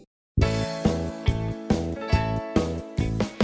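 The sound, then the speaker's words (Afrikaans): After a brief moment of silence, loud, full music kicks in with a bright, steady rhythmic beat and rich harmonic tones. No one speaks. “Maar kom ons luister eers na musiek.”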